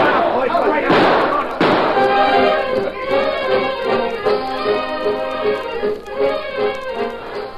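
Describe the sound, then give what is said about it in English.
Two sharp gunshots crack out close together near the start, fired in the woods by hunters as a signal, then a voice carries on speaking over a steady low background. “Shots rang through the woods as each band of hunters heard the signal and then fired.”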